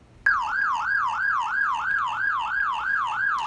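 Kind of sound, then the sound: vehicle, police car siren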